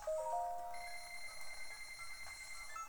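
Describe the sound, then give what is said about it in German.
A bright electronic purchase chime from a video game shop as in-game money is spent, ringing with sustained, layered tones that shift pitch partway through and continue steadily for a few seconds at a fairly soft level, with no talking. “Ihr hört wahrscheinlich, wie viel Geld ich gerade ausgebe.”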